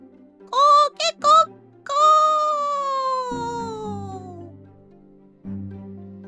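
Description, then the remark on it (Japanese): A human voice imitates a rooster's crow at dawn, the first cockcrow of the morning: three quick clipped notes, then one long, drawn-out call that slowly falls in pitch, followed by a low murmur of other sound. “よや一番鳥が鳴いたぞ朝になると鬼たちは自分たちの住処に帰らなくてはなりません”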